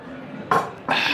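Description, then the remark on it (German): Glasses clink together in a toast, two bright clinks less than half a second apart, the second ringing on a little longer over a soft background murmur. “Trinkt mal noch kurz einen Schluck. Oh, Prost”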